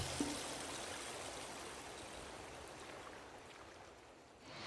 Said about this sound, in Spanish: Cierre los ojos, póngase unos audífonos y descubra qué suena el río de día, de noche, de lejos y de cerca. De la mano de expertos en acústica y en producción de sonido, descubriremos el paisaje sonoro del río Magdalena.